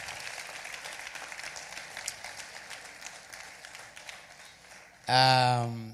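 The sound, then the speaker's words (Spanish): A crowd applauds young people steadily for about five seconds, a dense wash of clapping at moderate volume, before a loud voice abruptly cuts in at the end. “Dame un aplauso a todos esos jóvenes que pasaron por su peniel.”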